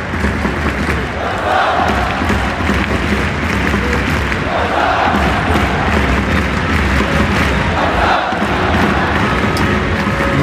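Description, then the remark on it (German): A loud, dense roar of the football crowd at Camp Nou in Barcelona at Xavi's first match, continuous and swelling in waves, with chanting voices and cheers rising every few seconds over a steady wash of noise. “Bon Dia aus dem Camp Nou. Ihr hört es.”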